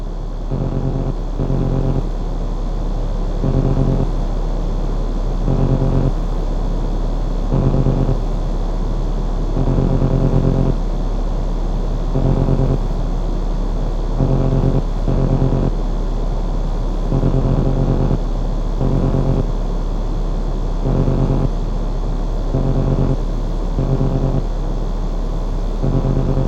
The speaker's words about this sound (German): Wir wollen da mal hineinhören in ein eigentlich nicht hörbares Stück. Und zwar AMF Audible, so haben sie es genannt. Elektromagnetische Wellen im öffentlichen Raum. Jetzt hören wir uns mal an, wie die klingen.